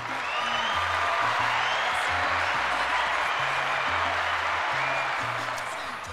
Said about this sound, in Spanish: Aplauso Martín.